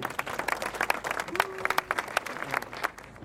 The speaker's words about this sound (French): également, alors je vous demande une ovation spéciale.